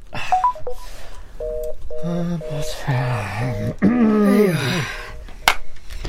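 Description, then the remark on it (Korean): A phone number being dialed to call a mother at a supermarket: a quick series of short, steady electronic keypad beeps, one after another, with a wavering voice sounding over and after them. “나는 잽싸게 슈퍼에서 졸고 있을 어머니께 전화를 걸었다.”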